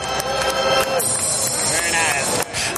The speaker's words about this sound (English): that was oddly satisfying hearing the, the crowd in the, the baseball game in the background.